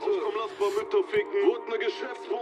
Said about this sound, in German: Was läuft denn da? Kommt das aus deinem Telefon? Ja, der hat einen geilen Beat, der Song, oder?